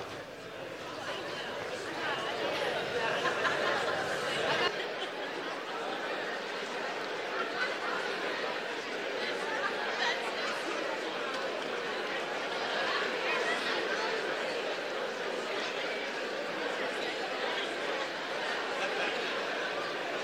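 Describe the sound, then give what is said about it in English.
A room full of people at a church service, turned to their neighbours to share the best news they have ever received, chatting at once, an even, steady babble of many overlapping voices with occasional bursts of laughter, holding at a constant level for the whole stretch. “I want you to turn to your neighbor and answer this question What is the best news that you've ever gotten?”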